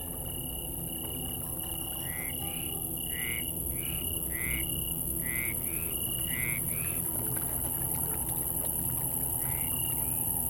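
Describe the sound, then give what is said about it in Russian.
A swampy night chorus: frogs and toads in a marsh give a run of repeated croaking calls over a steady, high insect whine and a constant wash of background noise, with no voices. “Бесконечный писк насекомых, хор лягушек и жаб, плеск воды.”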